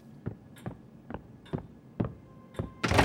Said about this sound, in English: Maurizio snaps his head to the door of his lawyer's office as it flies open. His driver stands in the doorway, sweaty and out of breath.